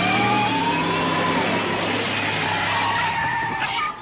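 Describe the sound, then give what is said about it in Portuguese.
A remote-controlled car revs up with a loud, high-pitched motor whine and screeching tire skid, sustained for about four seconds before dropping off at the end. “Se os meus cálculos estiverem corretos, quando essa belezinha chegar a 88 milhas por hora, você verá algo surpreendente.”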